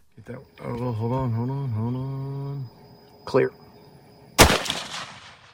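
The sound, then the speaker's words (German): A single loud, sharp gunshot from a promotional video of the Hunt Lodge in Texas, in which an animal is shot and falls, cracks out near the end and trails off in a brief echoing decay, after a long, drawn-out tonal cry and a smaller knock. “Ein Schuss, das majestätische Tier fällt.”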